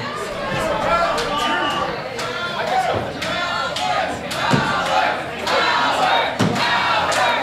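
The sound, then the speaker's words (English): A large crowd at a wrestling match roars and chants in a sustained, rallying wave of cheering and shouting behind a wrestler, with occasional sharp thuds cutting through the continuous loud din. “Crowd rallying”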